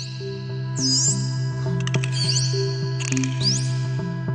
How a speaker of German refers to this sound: und Delfine, die pfeifen. Das hört sich dann richtig melodisch an.